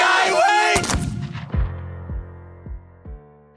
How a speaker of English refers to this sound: there's a lot of fun stutter effects on those on those cannons as well to mimic some of the things that will happen later